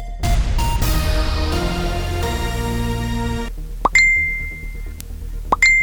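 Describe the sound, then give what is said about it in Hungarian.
A messaging app's new-message chime sounds twice, about two seconds apart, each a crisp pop with a short bright ring, after a stretch of dense sustained music that cuts off. “ki ne ismerné ezt a hangot, és ki ne aggódna időnként amiatt, hogy más is láthatja az üzeneteit.”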